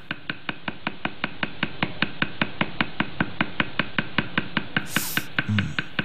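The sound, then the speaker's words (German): Rapid, steady tapping of a stick used as a hammer on the end of another stick, to which tattoo needles of various sizes are tied, driving them into skin, about five crisp knocks per second, even throughout, with no voices. “Da haut er dann auf das Ende des ersten Stocks oben drauf. Und das Ganze hört sich dann so ein.”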